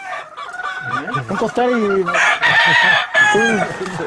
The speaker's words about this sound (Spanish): ¿Está muy precioso este gallo?